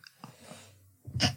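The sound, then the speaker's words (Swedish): A single sharp, fairly loud sneeze bursting out after a brief quiet intake of breath and a few soft mouth sounds. “Oj, prosit.”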